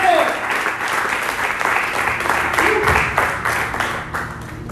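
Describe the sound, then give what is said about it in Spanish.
A church audience bursts into sustained applause for God (Jehová Nisi) during a sermon, a dense, steady wash of many hands clapping at once, with voices briefly rising and calling out beneath the clapping. “Alguien dice amén a esto, alguien puede aplaudirle a Jehová Nisi, Jehová mi escandal.”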